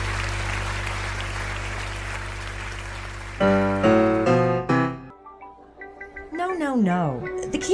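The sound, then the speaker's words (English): A hometown crowd at a billiards match applauds in a steady, dense wash of clapping for a few seconds, then the applause cuts off and loud voices take over. “On this day, in this game, before a knocked out hometown crowd, Billy Greenwood had arrived.”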